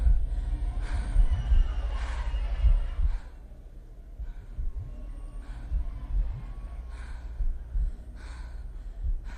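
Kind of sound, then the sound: human body sound, breathing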